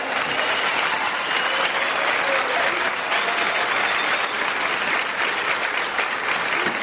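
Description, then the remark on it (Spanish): A large audience of about 12,000 people at a convention applauds steadily, a dense, continuous wash of clapping that holds at an even, loud level for several seconds without pause. “me sigan aplaudiendo, sigo cantando.”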